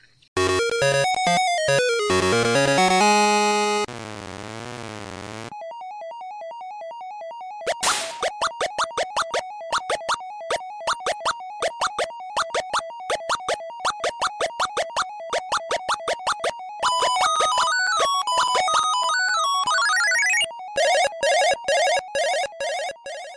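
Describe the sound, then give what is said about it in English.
Chiptune-style arcade game sound effects: rising and falling electronic sweeps, a warbling siren tone, then rapid repetitive bleeps and blips in a fast pulsing rhythm, loud and without any talking. “The game sounds just like this.”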